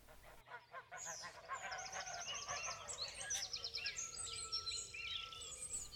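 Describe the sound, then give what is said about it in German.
A busy chorus of ducks quacking on a pond in a park, many calls overlapping in a steady, clamorous stream, with a few higher chirps mixed in and a faint outdoor hum underneath. “Das ist auch bei den Enten der Fall, die immer zahlreicher Becken und Teiche in den Parks besiedeln.”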